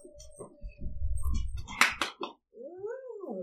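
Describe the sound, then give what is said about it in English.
A dog whines for attention in high, wavering whimpers, with a few short rustling thumps partway through and a drawn-out rising and falling whine at the end. “Well, now the dog wants attention from me.”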